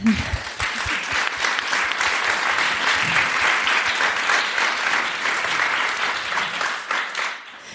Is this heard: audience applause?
yes